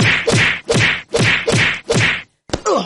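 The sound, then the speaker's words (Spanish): A rapid series of about six loud, sharp slap sound effects, dealt out in jest to Monedero on a talk show, in a steady rhythm, then a brief pause before another slap begins. No one speaks. “Venga, vamos a dar unas toñejitas a alguien”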